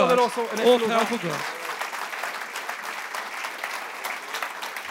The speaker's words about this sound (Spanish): ¿Cuántos le dan gloria a Dios? esta mañana? ya? ¿Cuántos pueden levantar un aplauso a Dios